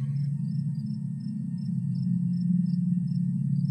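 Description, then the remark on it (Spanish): Night forest ambience: a steady low rumble with crickets chirping in a regular, high-pitched pulse every fraction of a second, soft and continuous, no voices. “Es de noche y estás en un bosque.”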